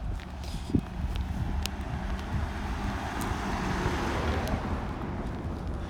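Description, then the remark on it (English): A vehicle rumbles past outdoors, a steady low engine and road noise swelling gently over several seconds, with a brief sharp knock near the start and a soft wind-like hiss throughout. “Hello, guys, and oh, the car coming.”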